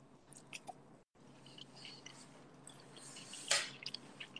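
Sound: chewing food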